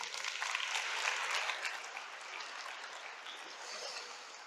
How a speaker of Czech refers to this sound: A poprosím potlesk.